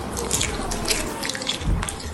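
Rio, a two-toed sloth at Bristol Zoo Gardens, hanging upside down and eating a 20th birthday cake of skewered sweet potato, peppers, cucumber and avocado, with wet squelching and irregular clicky munches running continuously over a faint background hiss, with no voices.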